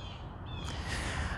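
Harsh, honking calls of ducks, geese and other birds ring out over a steady wash of outdoor background noise by a river in autumn, as geese fly and land on the river, with no one talking.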